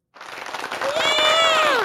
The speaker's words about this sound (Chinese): 各位，如果觉得对的，请给给一个掌声吧。